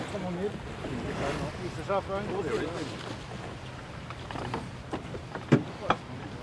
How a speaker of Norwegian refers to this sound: nå begynner vinden å ta litt her. Ja, Nå øker vi farten nå.